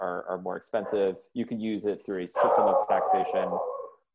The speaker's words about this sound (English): sorry about the dogs.